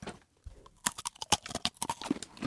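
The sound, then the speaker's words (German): Someone bites into a very dry, hard breadstick-like snack stick, about three times as thick as a grissini, then chews with a rapid, irregular run of sharp, crisp crunches that stay fairly loud. No one speaks. “Soll ich mal reinbeißen? Beiß mal rein.”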